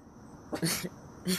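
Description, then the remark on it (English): A dog named Morky Fee barks a few times in short, sharp bursts, the first two close together and another after a brief pause. “I don't even know what she's barking at.”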